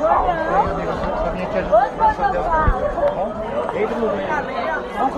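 Dense crowd chatter in a very noisy place, many overlapping voices of people milling and walking around, a steady loud babble with no single speaker standing out, recorded on a mobile phone.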